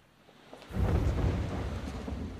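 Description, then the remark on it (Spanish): A deep roll of thunder from a storm about to break swells in after a quiet start and rumbles on heavily, loud and low, slowly easing but still booming at the end. No voices. “Está por caer una buena tormenta. No nos oiríamos aunque nos gritáramos.”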